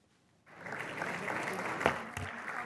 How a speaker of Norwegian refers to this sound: Publikum klapper for de norske skuespillerne under pressekonferansen for den tysk-norske filmen 'Nåde' under filmfestivalen i Berlin.